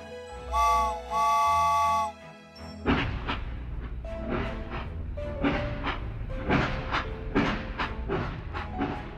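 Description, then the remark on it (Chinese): A ghost train ride sounds two loud, steady whistle blasts, then starts rolling slowly along a small track with a low rumble and a rhythmic clatter of wheels that repeats steadily. No one speaks. “火车已经启动了，他们沿着小轨道缓缓地前行。”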